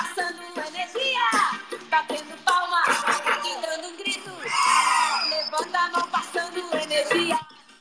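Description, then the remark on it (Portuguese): Several voices shout and cheer loudly and continuously, with high, excited yelps rising and falling over a few seconds before cutting off. “Batendo palma e dando grito, levanta a mão.”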